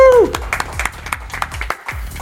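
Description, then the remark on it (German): A brief burst of audience applause for the DJs at the St. Peter Cafe in Frankfurt, irregular sharp claps from a small crowd, opening with a short falling whoop from a voice before the clapping carries on steadily. “Alle nochmal einen schönen Applaus hier für die DJs.”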